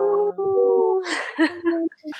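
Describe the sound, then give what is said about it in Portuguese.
Human voices imitate a dog's howl with a long, sustained, wavering tone, then break into shorter meow-like calls and brief laughter, fairly loud. “Vamos dar um uivo e um miado mágico em um, dois, três e.”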